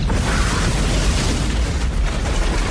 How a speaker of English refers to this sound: Uh, okay, here's the first lion roar used in a fire. Sorry, not really a roar. It's like a tiger growl. Yeah, tiger.